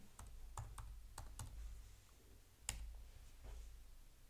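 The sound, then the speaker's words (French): Irregular computer keyboard typing while searching for a Bill Cosby quote, a scattering of quick clicky keystrokes with a few louder taps and short pauses between bursts; no one speaks. “Alors, ça va faire du bruit au clavier, mais désolé.”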